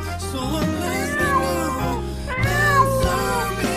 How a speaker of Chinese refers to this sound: 黑小猫最后朝屋子里叫了几声，我知道它是在说再见，好好保重。